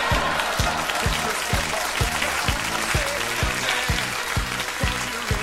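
An applause sound effect: a steady wash of crowd applause, dense and continuous, fills the whole stretch at an even loudness, with a regular low thumping pulse repeating beneath it roughly twice per second.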